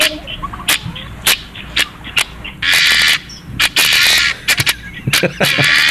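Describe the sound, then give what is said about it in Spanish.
Harsh, grating guinea fowl calls come in loud, raspy bursts, several lasting about half a second, mixed with sharp clicking chirps in an irregular, rattling rhythm. “Aquí viene la gallina guinea, alistate.”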